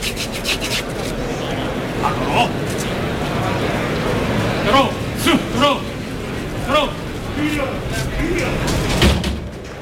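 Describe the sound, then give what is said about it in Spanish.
The second bull-pen gate (chiquero) in a bullring grinds open with a long, rough rasping scrape to let out the second bull of the afternoon, set against a steady wash of crowd noise and scattered shouts from spectators. “Segundo chiquero abierto.”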